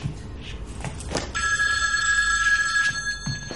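A telephone bell starts ringing after a second of soft shuffling noises, then rings steadily and fairly loudly, a bright sustained metallic ring that continues to the end.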